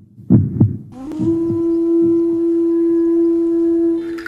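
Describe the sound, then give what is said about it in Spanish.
Deep, muffled heartbeat thumps in lub-dub pairs, loud at first and then softer, as a steady humming drone rises and holds beneath them. “Tayari emite latidos, pulsaciones que se escuchan cual grito de resistencia”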